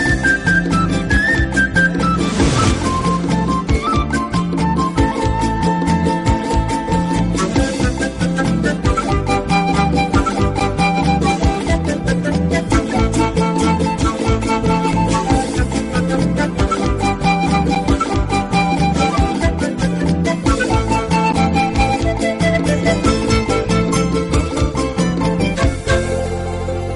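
A song in saya rhythm plays loudly and steadily throughout on the Pentagrama Latinoamericano radio programme of radiotushurami.com, with a driving, repetitive percussion beat under full band instruments and no talking.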